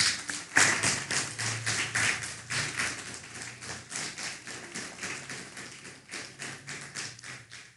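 A church audience applauds steadily for about eight seconds, a dense, even patter of many hands clapping at once, with a faint low sustained tone underneath, welcoming two new visitors from Río Blanco, Orizaba.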